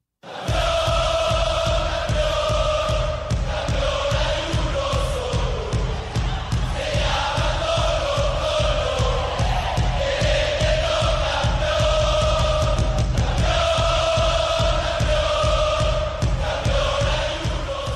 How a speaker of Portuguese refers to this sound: o clássico, o grande clássico chileno entre Colo-Colo e Universidade de Chile, partida única em Temuco, terminou com uma vitória do Colo-Colo e a torcida cantou aquela musiquinha que eles cantam sempre que o Colo-Colo é campeão.